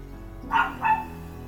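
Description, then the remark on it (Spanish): Two quick dog barks in succession, moderately loud, over a low steady background hum with no one talking. “disfruten el ruido de los perros.”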